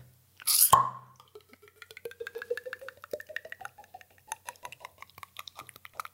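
A bottle cap pops off with a sharp hiss, then wheat beer glugs into a glass, the gurgling rising steadily in pitch as it fills, ending in fizzy bubbling.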